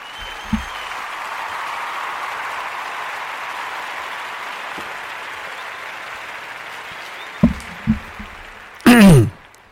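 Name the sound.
applause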